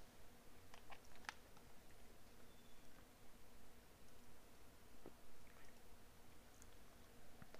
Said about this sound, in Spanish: Eh, mi último trago de agua.